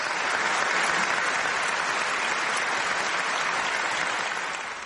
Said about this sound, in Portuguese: agradecimento vem em forma de aplausos demorados e lágrimas.